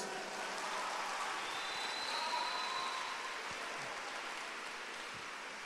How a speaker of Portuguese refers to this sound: Perdão, pode aplaudir aqui a é Jesus.